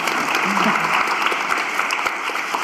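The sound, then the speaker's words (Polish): Steady, dense applause from an audience in a hall welcoming a guest, a continuous crackle of many hands clapping at an even loudness, with a faint voice briefly audible beneath it. “Dzień dobry i brawa dobry dla Ciebie.”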